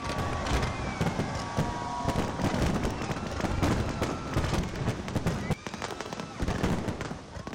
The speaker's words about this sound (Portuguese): Show de luzes e fogos também em Hong Kong.